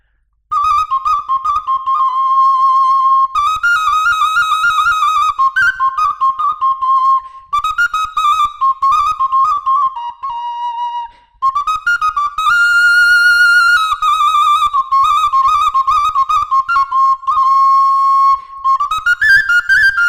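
A shrill, bright Romanian fluier flute with a plastic (PET) fipple plays a fast, lively sârbă dance tune for about twenty seconds, with quick trills and ornamented runs hopping between a few high notes, loud and unaccompanied.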